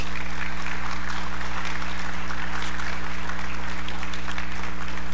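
Loud, sustained applause from an audience, a dense steady roar of many hands clapping that continues without pause, with a faint low hum running underneath.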